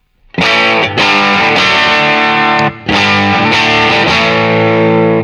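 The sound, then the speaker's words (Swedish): Loud, distorted electric guitar through an amp, set at 12 and 12, plays sustained, ringing chords struck roughly once a second, first on the amp's rhythm channel, then the lead channel is switched on during playing. The sound briefly drops out midway, then resumes just as full. Nobody talks. “Och sen så slår jag, eh, spelar du först på rytmläget och mm. sen så kommer jag medan du spelar slå på lead-läget.”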